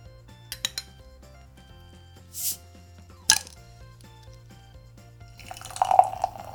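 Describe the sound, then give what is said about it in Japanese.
Creek in the Barrel beer, from a brewery in Kosuge village, Yamanashi Prefecture, is poured into a glass, a gurgling, fizzy stream in the last second or so, after a few light glass clinks, a short hiss and a sharp clack. “じゃあちょっとね今年のクリーク・イン・ザ・バレル飲んでいきましょうか”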